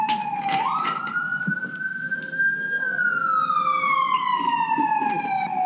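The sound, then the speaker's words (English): An emergency vehicle siren wails steadily and loudly, its pitch sliding up and then gradually dropping as it passes by down a street, with traffic rumble underneath. “Sorry, siren? Oh, oh, I'm right down the street.”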